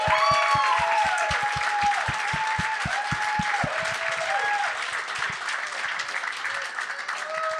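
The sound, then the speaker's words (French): An audience breaks into loud, sustained applause that fills the whole stretch, dense clapping with high whistles and cheers over it, and steady rhythmic thumps in the first half before fading. “Applaudissez-le.”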